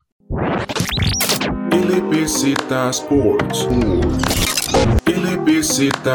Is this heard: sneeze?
no